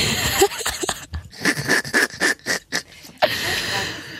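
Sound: heavy breathing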